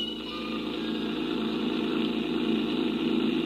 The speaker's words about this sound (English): I rented a creaky old truck and headed for Barnesville.